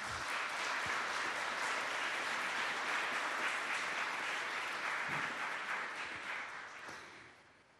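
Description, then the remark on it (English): A crowd at a Harvard event applauds the organizing committee steadily, a dense wash of many hands clapping at full volume for several seconds before tapering off at the end. “Could we please offer them a round of applause for helping us put this together?”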